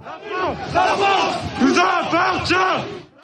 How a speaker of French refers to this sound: Dans les rues, résonnent des cris en soutien à Thomas, Thomas mais aussi des slogans nationalistes.